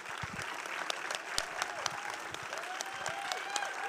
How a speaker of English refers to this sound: And Another huge round oh, of applause